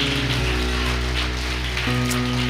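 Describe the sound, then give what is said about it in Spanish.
A large crowd claps loudly and steadily for God, a dense wash of applause, with sustained keyboard chords droning underneath. “hijo de Dios, dele un fuerte aplauso a nuestro Dios.”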